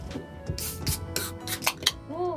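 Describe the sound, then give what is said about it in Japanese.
A drink container being opened for a toast: a quick series of sharp clicks, crackles and scraping bursts over about two seconds, with no one speaking. “乾杯しようか じゃあちょっと開けてねはいはい、はい”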